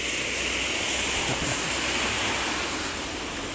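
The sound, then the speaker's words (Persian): Heavy rain pours down in a park in cold weather, heard from under a tree, in a dense, steady hiss that stays loud and unbroken throughout, with no voices and no distinct individual drops standing out. “دارم به خونه نزدیک میشم ولی بارون شدیدتر شده اومدم توی پارک زیر درخت وایستادم”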